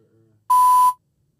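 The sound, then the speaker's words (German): A single loud electronic beep from an accidentally tapped sensor button, a steady mid-pitched tone lasting about half a second, sounding alone after a faint low background hum, with no talking. “ah, das ist der Sensor-Button.”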